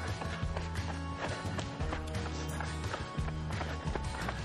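Quick, light running footsteps taking small steps during an exercise session patter in a steady, rapid rhythm, moderately loud, with music playing continuously underneath.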